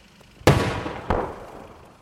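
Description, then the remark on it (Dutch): Two sharp, heavy blasts of gunfire or explosions from a tank battle under way at the 5 kilometre point, about half a second apart, each followed by a rumbling, fading tail. There is no talking. “Maar op het 5 kilometer punt, daar aangekomen, eh, was er dus een, een, tankgevecht aan de gang.”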